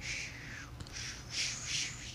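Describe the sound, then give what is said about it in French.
Faint, continuous twittering of small birds outdoors on a terrace, a high chorus of chirps that swells slightly toward the end, with no voices. “Fait va entendre des petits oiseaux, on entendre des coups de l'action.”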